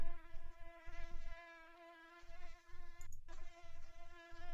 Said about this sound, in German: Äh, Mückengeräusche.